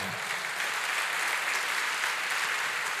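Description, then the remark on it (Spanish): A crowd applauds steadily, many hands clapping in a dense, even wash of sound that holds at a constant level for the whole stretch, with no voices rising above it; the applause is given to the Lord. “Quiero que le dé un fuerte aplauso al Señor.”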